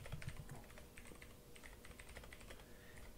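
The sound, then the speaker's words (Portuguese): Rapid, steady clacking of keys on a gaming keyboard, fairly loud, with dense overlapping keystrokes continuing throughout and no one speaking. “Eu, eu, eu, eu, realmente gostaria de entender das pessoas que usam esse teclado gamer, né?”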